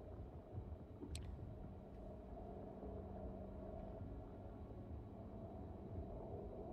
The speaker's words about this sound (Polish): Ja sobie trochę jednak przyciszę, bo ten ambient może nieco za głośno.